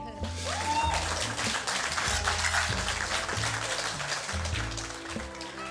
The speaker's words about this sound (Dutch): ik wil heel graag een keihard applaus voor Samia Gilene.